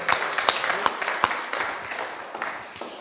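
A short round of applause from a few people, with brisk, irregular claps that stay fairly loud for a few seconds before thinning out slightly toward the end.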